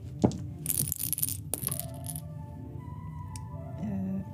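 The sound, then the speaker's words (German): A heavy D100 die clatters and tumbles across a hard surface in a few sharp, bright rattling bursts, then settles, leaving a quiet low hum. “Ähm, ich würde einen von euch wieder bitten, einen D100 zu werfen.”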